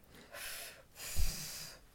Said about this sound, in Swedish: Eh, mycket bättre att andas ut luften. Man får låtsas att man röker.